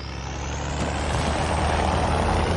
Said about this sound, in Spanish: Un militar vigila en una garita ante el Instituto de Enfermedades Infecciosas. El camión se dirige hacia él y su conductor salta en marcha.